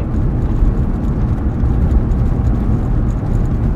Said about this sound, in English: I had to stop talking really quick. A, car, a cop's passing.